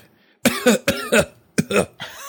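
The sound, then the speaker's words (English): Loud coughing in three quick pairs of harsh bursts with short pauses between them, trailing off into a softer sustained sound at the end, opening the cue music of a coronavirus news segment. No speech. “I, actually did forget that it starts with the coughing.”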